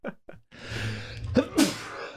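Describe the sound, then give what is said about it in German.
A single loud sneeze: a couple of short sharp inhales build up, then a noisy burst explodes before trailing off. “Entschuldigung. Ach, Gesundheit, Mensch.”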